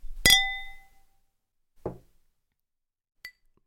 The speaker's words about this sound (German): Dieses ist diese Woche ein fantastischer Wein, den ich jetzt unbedingt testen will, weil er wurde mir geschenkt. Von daher sage ich erstmal Stößchen und dann ab ins Verkosten. Prost!